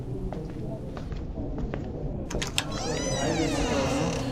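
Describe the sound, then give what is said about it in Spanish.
Steady murmur of many low voices fills a quiet bar, with scattered sharp clinks of glasses, people coughing, and faint clatter throughout, with no music. “Qué bar más silencioso. Escucho murmullos, ruidos de vasos, gente tosiendo, gente que no respeta la distancia, pero nada de música.”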